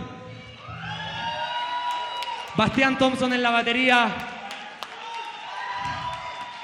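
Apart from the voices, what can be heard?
audience applause and cheering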